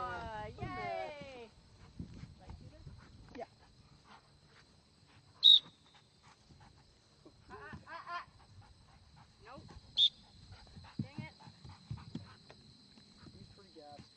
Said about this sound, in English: Okay. Search and bark. Search and bark. Search and bark. yes. All right. Good boy.